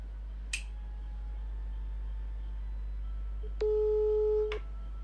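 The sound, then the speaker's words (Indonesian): A sharp click, then after a pause a steady electronic telephone tone holds for about a second before cutting off with another click, as a dropped call is redialed. No voices, just faint background hum. “Oke, sambungan kita terputus. Coba kita telepon lagi ya.”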